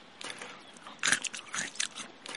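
A jaguar growls while devouring a monkey in the jungle, with wet crunching and tearing bites in uneven bursts that swell loudest midway, moderately loud, with no voices.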